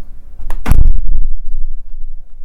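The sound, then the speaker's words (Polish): A balcony door slams shut with a heavy, booming low thud, preceded by a brief rattle and followed by a short rumbling decay, then quiet; a test of very low frequencies. “W momencie, kiedy zamykam balkon, no właśnie jest taki, taki bas duży.”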